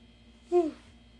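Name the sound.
yawn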